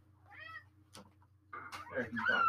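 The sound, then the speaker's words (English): A cat lets out an agitated, drawn-out meow, followed by a sharp knock and then a louder, harsher yowl, over a low background hum. “Oh my god, the cat is mad.”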